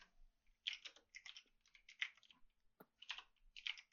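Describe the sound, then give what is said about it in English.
Quick, irregular bursts of typing on a computer keyboard, clicking keys in short clusters with brief pauses between them, fairly quiet with no voices; someone is typing the word "Australia". “I'm I'm literally typing Australia and forgetting how to spell it.”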